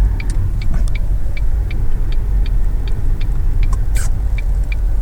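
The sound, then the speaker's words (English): A minivan's low engine rumble hums steadily from inside the vehicle as it pulls into a parking space, while a regular ticking, like a turn signal, clicks along at an even pace. No one speaks. “It's like the Stan Armada pulling in, man.”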